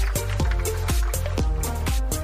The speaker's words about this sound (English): We can hear the beer, you know, in the run up to the 19th hole.